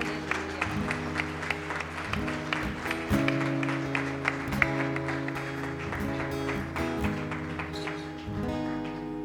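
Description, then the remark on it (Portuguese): Steady, dense applause from a church audience applauding the Lord after a prayer. The clapping goes on for several seconds, layered over sustained musical chords that hold underneath the whole time. “Aplauda o Senhor.”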